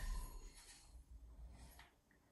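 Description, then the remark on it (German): A mobile phone ringing faintly, its ringtone a soft electronic pattern with short repeated bursts over a low background hum, and no talking. “Jetzt werde ich hier auf dem Handy angerufen, ne?”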